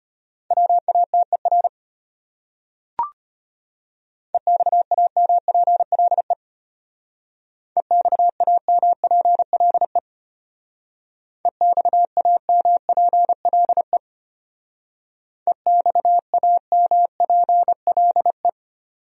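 Five rapid bursts of Morse code, words sent at 25 words per minute in a steady mid-pitched beep, each a quick run of dots and dashes separated by short pauses, with a single sharp click early on.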